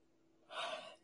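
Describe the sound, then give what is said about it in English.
A single breathy yawn, fairly soft, swelling into a half-second rush of airy breath before fading out. No speech accompanies it. “Wow, I'm like yawning like crazy, but it's trust me, it's not because it's uninteresting.”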